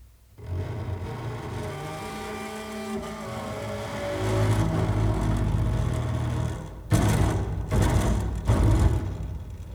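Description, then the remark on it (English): Rulers played as percussion, twanging with a buzzy, droning tone whose pitches waver and slide, then rising into louder rattling, clattering bursts toward the end. No one speaks. “I haven't heard the sound of this yet, so I'm really looking forward to it shall we have a listen for the, for the, for the rulers?”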